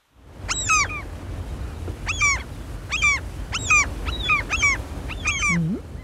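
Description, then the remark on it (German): A black-headed gull gives a series of harsh, nasal calls, about seven short bursts spaced roughly evenly over six seconds, clear above a low rumbling background. “Eine Lachmöwe.”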